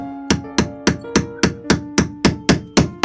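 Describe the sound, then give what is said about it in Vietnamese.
An iron nail being hammered into a wobbly wooden bed leg to fasten it tightly: about ten sharp, evenly spaced blows, each with a brief metallic ring, heard alone with no talking. “Ông Dương lụi củi đóng cây đinh sắt cột thật chặt cái chân giường đang bị lung lay Trực sắp kéo cả cái giường đổ sập xuống”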